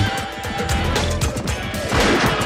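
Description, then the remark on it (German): A horse whinnies amid a dense, loud pop song track, part of the song's sound effects of riding with horses, with sharp crashing percussive hits and a busy layered backing that swells toward the end. “da sind die ganzen Geräusche drin wo er mit den Pferden reitet ja.”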